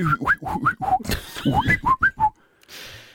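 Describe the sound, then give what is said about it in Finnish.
A person tries to whistle in a string of short, breathy chirps, about ten quick rising whistle notes mixed with air noise, fairly loud, trailing off into a soft breath. “Niin, Mä oon ihan surkea viheltäjä.”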